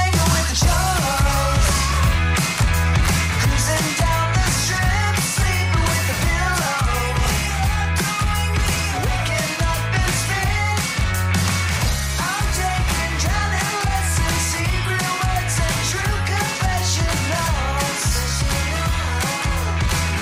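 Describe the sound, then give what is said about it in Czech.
A loud, fast punk rock song from a band's new album plays throughout, with pounding drums, driving bass and dense guitars filling the mix at a steady, high volume from start to finish. “Takhle zní nová deska ….”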